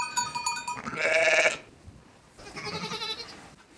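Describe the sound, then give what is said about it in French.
Ewes and lambs bleat from a flock, several wavering calls overlapping: a loud burst early on, a brief lull, then another round of bleating, with no talking. “les brebis savent reconnaître les leurs.”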